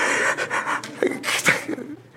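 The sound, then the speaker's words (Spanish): A voice imitates a person snoring and choking: a raspy run of rough breaths and choked, panting bursts lasting a couple of seconds, with no words spoken. “No es que así ronca, pastor, ¿yo qué puedo hacer? No, pero es que también hoy sí se está ahogando.”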